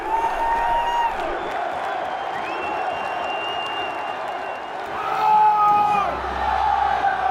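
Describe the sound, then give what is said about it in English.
A huge soccer World Cup crowd in the U.S., fans dressed in American flags with painted faces, roars and cheers continuously, a dense wall of voices with rising whoops and shouts swelling louder toward the end, no single speaker standing out. “Such massive crowds too.”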